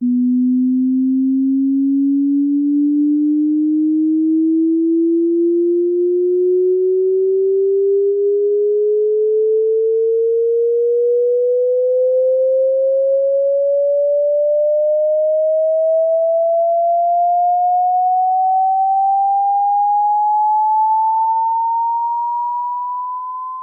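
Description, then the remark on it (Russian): A pure sine tone sweeps slowly and steadily upward in pitch from low to fairly high over about twenty-four seconds, holding an even, constant loudness with no other sounds. “А вот постепенное повышение частоты звука.”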